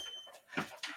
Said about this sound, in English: Sorry about that. My dog is acting Crazy.